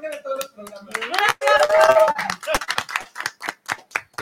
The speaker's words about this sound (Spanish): Diario, un aplauso.